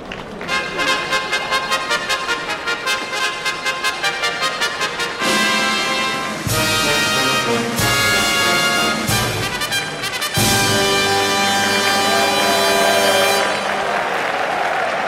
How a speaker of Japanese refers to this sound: 中山競馬場3時の時点で2万1000人弱詰めかけました競馬ファンから歓声と拍手が沸きました